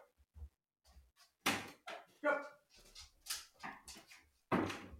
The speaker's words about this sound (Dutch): Wacht even, mijn hond is eh, aan het eh, blaffen.